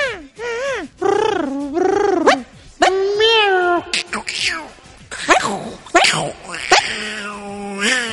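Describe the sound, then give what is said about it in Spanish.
A loud string of drawn-out cat meows and yowls, rising and falling in pitch, as cats trade calls back and forth in quick succession with short pauses between them. “¿Has visto los gatos cuando están ahí? Cuando conversan.”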